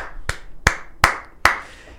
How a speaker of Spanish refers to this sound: Eh, yo, yo tengo que aplaudir en el micrófono, señores, a Pep Guardiola.